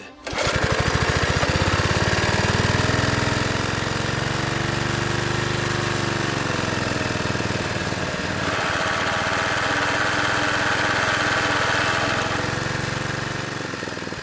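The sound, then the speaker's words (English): The small motor of a motorized surfboard roars loud for the whole stretch, a buzzing, rattling drone that wavers in pitch partway through before settling back into a steady run. “Right now, I'm working on this motorized surfboard.”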